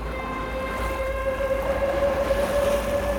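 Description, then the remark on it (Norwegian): A ship's engine drones steadily on open water, a deep continuous rumble with a faint tonal hum and soft wash of water, unbroken with no voices. “Så da faren døde, da stakk en kong Magnus Erlingsson bort fra åkeren og inn i byen og om bord i et skip og ut i elva og ut i fjorden og ut mot havet, og stoppa ikke før han kom til Bergen.”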